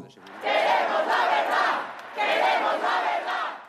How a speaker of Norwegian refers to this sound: Vi vil vite sannheten, roper tusener av demonstranter utenfor hovedkvarteret til regjeringspartiet Partido Popular.